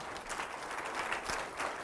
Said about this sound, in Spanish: Si le va a aplaudir, apláudale con ganas.